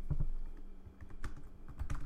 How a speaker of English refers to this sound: sorry for my typing. I know this is the worst podcasting thing. I hate when people type in podcasts.